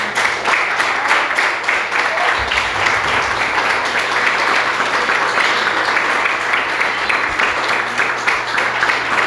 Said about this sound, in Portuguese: Vamos aplaudir Jesus, amados.